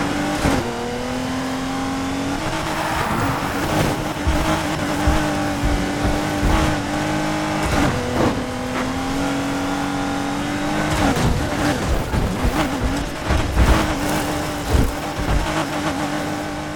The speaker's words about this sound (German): Ich muss kurz den Wagen anschmeißen.